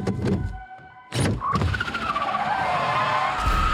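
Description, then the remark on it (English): A car skids with loud, sustained tire squeals that rise and waver over engine noise, starting after a brief quieter moment and continuing intense. “finally get to drive a car.”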